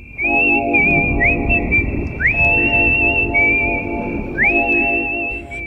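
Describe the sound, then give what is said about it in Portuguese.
A loud, clear whistled melody of long held notes joined by quick upward slides, over a soft sustained instrumental backing, with no voices. It is the melody from the 1968 English film A Morte Tem Cara de Anjo, directed by Roy Bolting, whistled by the psychopath character Martin. “Neste filme, o personagem Martin é um jovem psicopata que sempre assobia essa melodia quando vai assassinar alguém.”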